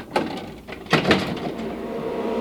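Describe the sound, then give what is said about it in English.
An overhead hatch at the top of a ladder on the wall at stage right of a theater stage pops open with a sharp clunk followed by a louder double rattle of metal, then a steady low mechanical air hum from the theater's HVAC air exchanger plant carries on underneath. “And up top of the ladder here, there's a hatch.”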